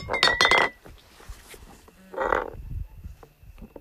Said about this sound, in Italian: il gatto è particolarmente eccitato e quindi ha rovesciato anche la, la birra di nuovo.